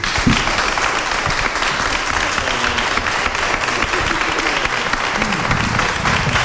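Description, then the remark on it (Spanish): Members of the Milagrosa brotherhood clap steadily and loudly to show they want to go to the cathedral, a dense, continuous wash of many hands applauding with no pauses, sustained evenly from start to finish. “Si queréis ir, pegar un aplauso, aplaudir.”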